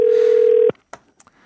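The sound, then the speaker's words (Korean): A loud, steady telephone ringing tone, as a call is placed to a listener, holds for under a second, then cuts off abruptly, followed by a few faint clicks and small noises as the call connects. “전화 연결해 봅니다.”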